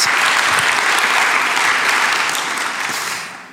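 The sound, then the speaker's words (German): An audience applauds steadily for the people following online via livestream, with dense, crackling clapping that holds strong and then begins to taper off toward the end. No one speaks over it. “Jetzt gebt noch mal allen Leuten Applaus, die online mit dabei sind.”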